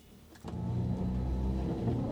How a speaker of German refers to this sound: Das ist schon cool, jetzt fahren wir und man hört praktisch nichts. Nein, es ist wirklich so, dass es brummt ein bisschen. Surren. Also Krass. der Lastwagen selber surrt eigentlich so. Und das, was jetzt so brummt, das ist das Kühlgerät.